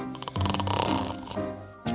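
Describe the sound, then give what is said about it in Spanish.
Loud, rough snoring from a person who has fallen asleep during a hypnosis session to quit smoking: a long rattling snore drawn out over most of the moment, then another breath starting right at the end. No one speaks. “Qué manera de roncar.”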